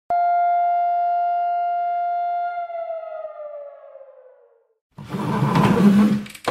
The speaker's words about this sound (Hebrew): זהו, הסתיימה הצפירה, עכשיו אני יכולה גם להסביר לך.